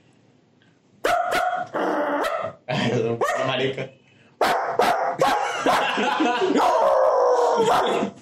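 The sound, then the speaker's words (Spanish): A person does a loud, convincing dog imitation in a contest over who barks best, letting out a string of barks and yelping howls in close succession with brief pauses between bursts. “Yo tengo talento oculto, que es que yo puedo ladrar.”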